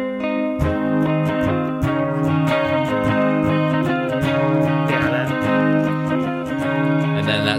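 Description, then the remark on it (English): A clean electric guitar played through a chorus pedal plays sustained chords and picked notes with a shimmering, gently swirling chorus effect, moderately loud, with no voices over it. “That's the cl- more classic type of chorus.”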